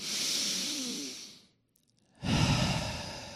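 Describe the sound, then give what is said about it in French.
A deep, airy inhale lasting over a second, a brief pause, then a fuller, louder exhale rushing out, clear with no talking. “une respiration profonde.”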